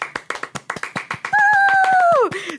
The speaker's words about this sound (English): Round of applause.